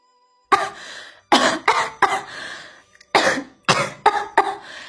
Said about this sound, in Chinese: 总算补完了，晴雯呐放松下来，禁不住咳嗽了好几阵，气喘吁吁的说道